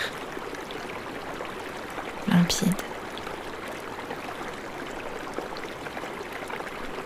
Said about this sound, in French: Vous êtes guidé par le son de ce filet d'eau qui est devenu ici un ruisseau. Alors, vous continuez à le remonter. L'eau de ce ruisseau est claire